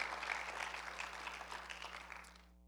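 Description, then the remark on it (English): A crowd gives the Lord a hand clap of praise, a dense, steady wash of many hands applauding for about two and a half seconds before tapering off and stopping, with a low electrical hum underneath. “Eh, yeah, give the Lord a hand clap of praise because I'm enjoying it.”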